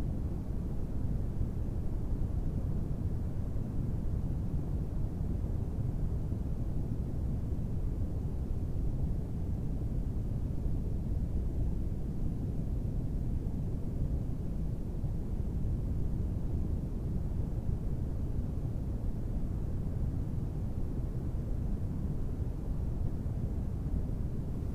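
Steady, deep brown noise fills the whole stretch, a low rumbling hiss with energy concentrated in the bass and very little treble, unchanging in level with no voices or other sounds, playing as background to a guided sleep meditation.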